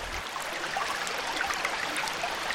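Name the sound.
river rushing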